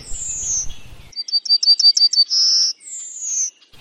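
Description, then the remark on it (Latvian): A yellowhammer sings in a different regional song dialect: a rapid series of high, repeated chirps ending in a long, sustained note, then a second thin descending whistle follows; clear and alone over a faint low rumble at the start. “Un te salīdzināšanai, te ir daļa no kartes, kur ir divi citi dialekti. Tā pēdējā nots ir kāpjoša.”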